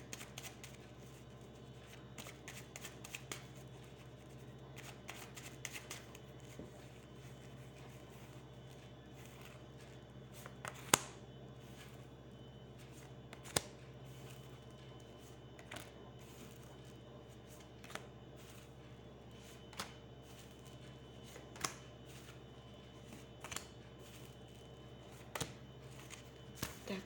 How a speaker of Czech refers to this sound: A já už se dívám na vaše fotky, míchám u toho karty a podíváme se teda spolu, co nám Tarot řekne k tomuto vztahu.